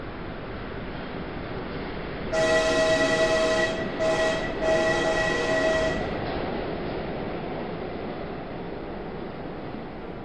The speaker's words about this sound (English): I stood there watching the red light of his train disappear.